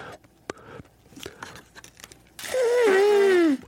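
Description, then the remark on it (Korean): A loud fart noise imitated by hand, one long buzzy blurt of just over a second with a wavering, slowly falling pitch, preceded by a few faint clicks and rustles. “이모부랑 밥을 먹는데, 이모부가 엄청 큰 방귀를”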